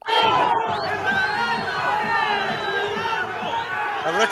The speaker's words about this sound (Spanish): Y evidentemente desde la galería se escuchan los bonitos epítetos contra los árbitros.